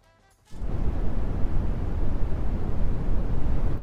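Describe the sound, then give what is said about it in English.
A steady wash of deep, rumbling brown noise starts abruptly after a brief quiet moment and continues evenly, heavy in the low end like wind or surf. “That's brown. Well done.”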